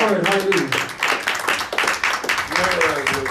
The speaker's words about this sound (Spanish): Da un aplauso al Señor, aleluya.